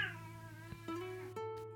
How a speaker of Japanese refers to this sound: やばい。ちょっと収録一旦中断するかなんか猫が興奮してる。まあ、BGM として楽しんでいただくことにしましょう。